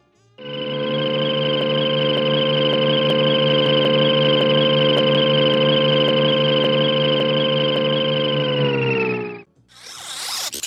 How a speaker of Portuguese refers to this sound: Eu coloquei o som da navezinha dos Jetsons, que é um clássico aí do sound design de animação.